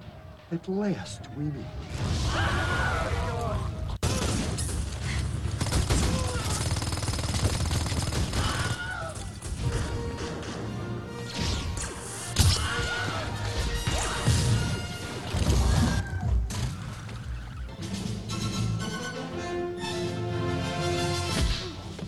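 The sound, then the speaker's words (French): A dense montage of movie action audio: bursts of gunfire, crashes and impacts, with a sharp, high-pitched stock Wilhelm scream cutting through, while voices and music play underneath throughout. “Le cri de Willem est donc l'un des plus grands easter du cinéma.”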